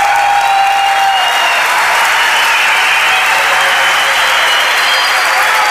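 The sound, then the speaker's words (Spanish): Sustained audience applause, a dense, steady wash of many hands clapping at once, loud and unbroken for several seconds, with faint crowd murmur mixed in and no clear speech. “Y entonces estoy seguro de que, todos los aplausos, las muestras de cariño, son eso, son muestras de cariño.”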